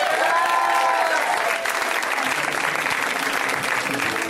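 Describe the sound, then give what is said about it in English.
A Los Angeles crowd bursts into sustained applause welcoming comedian Calise Hawkins, visiting from New York, a dense, loud wash of clapping with scattered whoops and cheers that holds steady throughout. “We're going to give her a giant Los Angeles welcome, especially out of towners, right?”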